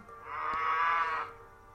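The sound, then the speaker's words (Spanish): A single drawn-out cow moo from cattle being herded by cowboys in the countryside at dusk, fairly loud, rising and holding for about a second before fading, with no voices present. “Algunos de los vaqueros ya se habían adelantado y empezaron a arriar aquellas vacas”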